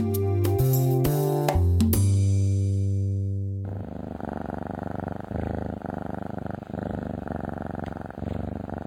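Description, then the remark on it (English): A few seconds of sustained musical tones give way to a cat purring, a steady, rumbling purr with soft rhythmic pulses that continues on its own. “To many pet lovers, the purr of a cat is the sound of pure contentment.”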